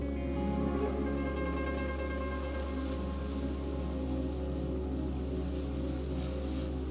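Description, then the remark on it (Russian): A steady patter of water falls onto flowers and leaves as each flower in a garden is watered on a hot day, drops running down petals and leaves. It is continuous and even, with a low hum beneath it and no voices. “Профи поливает каждый цветок.”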